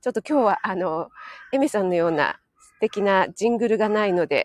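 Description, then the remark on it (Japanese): Crows caw harshly outdoors in the background, their calls partly buried under steady talking, with a brief lull in the speech where the cawing is left more exposed. “ここすごいなんかカラスがうるさい”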